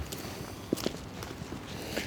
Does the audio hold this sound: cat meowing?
no